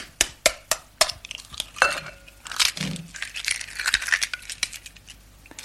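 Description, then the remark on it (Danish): Eggs being cracked into a bowl: several sharp taps against a rim, crunching shell, a soft wet plop, then crackly rustling of shells. No one speaks. “Det er nemlig lyden af æg, der bliver slået ud.”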